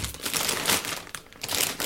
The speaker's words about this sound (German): hier mal ein paar auf den Tisch, dass nicht die ganze Zeit die, dass nicht die ganze Zeit die Tüte knistert